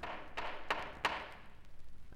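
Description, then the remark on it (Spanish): Three firm knocks on a wooden door, evenly spaced about a third of a second apart, followed by a couple of fainter taps over a quiet background with no voices: the seven dwarfs knocking at Snow White's door in the tale. “Blancanieves no nos ha abierto la puerta. ¡Llamad!”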